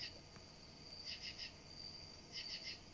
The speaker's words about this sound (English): Damn oh, now. Oh, that's two threes in a row. What an asshole. That damn cricket's an asshole. God, I'm out of here. Screw you, cricket. you establish a pattern, then you break it.